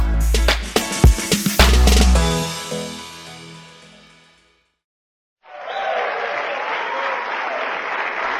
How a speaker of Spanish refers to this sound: ese aplauso realmente es para ustedes, ustedes que son ganadores, personas que ya saben por qué están haciendo este negocio.